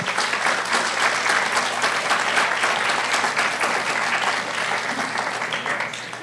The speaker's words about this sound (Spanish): dale un fuerte aplauso a Dios, si así lo crees.